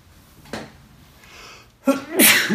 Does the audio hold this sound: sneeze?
yes